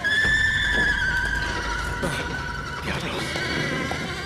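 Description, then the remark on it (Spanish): Several horses neigh and whinny loudly as they smell something and flee, their shrill, wavering cries overlapping over a rumbling, noisy background with hooves and commotion. “¿Qué demonios les pasa a los caballos?”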